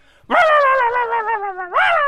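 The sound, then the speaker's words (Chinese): An agitated dog that has recognized the veterinarian who neutered it lets out a loud, drawn-out wavering cry at the vet that slowly sinks in pitch, then ends with a sharp rising yelp, with no talking over it. “这狗当时情绪确实有点失控，他对兽医说了一些什么呢”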